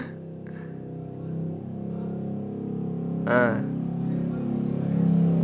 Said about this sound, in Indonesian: bentar aku nungguin ini motor lewat dulu lama kali bang